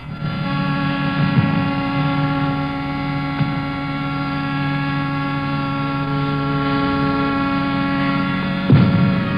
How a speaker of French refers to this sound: Une à une, les sirènes s'arrêtent cependant que continue à tonner le canon.